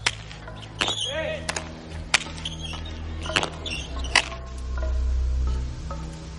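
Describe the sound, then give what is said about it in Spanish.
A Basque pelota ball smacks against the court wall in sharp, echoing cracks, about six irregularly spaced hits, as men play Basque pelota in a village, with a low murmur of voices and ambient noise underneath. “En el pueblo los hombres juegan a la pelota vasca.”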